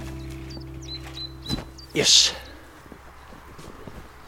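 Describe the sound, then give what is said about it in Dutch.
People, including a water board employee, climbing over a fence to walk upstream along a brook toward a measuring setup: a dull knock, then a short, loud rattling clatter. Birds chirp faintly in the background over a low hum, and a voice speaks briefly. “klimmen over het hek, lopen stroomopwaarts langs de beek naar iets dat op een meetopstelling lijkt.”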